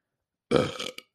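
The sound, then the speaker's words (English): A single loud burp erupts abruptly, a throaty rumble lasting about half a second, followed by a brief click-like tail as it ends. “Well, I got a burp coming.”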